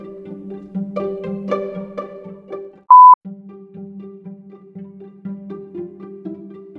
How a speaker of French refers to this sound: Mais alors son téléphone a commencé de sonner. C'est une personne mystérieuse.